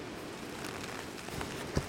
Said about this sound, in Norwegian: Nå blir vi tatt av vinden her. Det regner veldig, så vi er raskt tilbake i bilen.